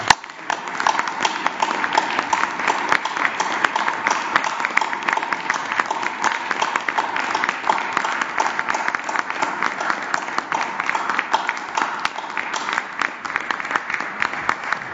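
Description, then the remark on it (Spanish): An audience applauds a doctor at the close of a meeting, steadily for the whole stretch, a dense, even wash of many hands clapping at a fairly loud level, with no voices standing out. “Nada más terminamos con un aplauso aquí para eh, la doctora”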